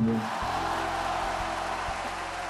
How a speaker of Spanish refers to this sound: Gente aplaudiendo.